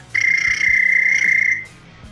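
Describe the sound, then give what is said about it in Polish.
A single long, shrill whistle blast from the east bank of a river holds one steady high pitch for about a second and a half, then fades away, with faint low rumbling underneath. “A na mostku kapitańskim wszyscy nagle patrzą w e, prawo, na wschodni brzeg, bo stamtąd dobiegł gwizdek.”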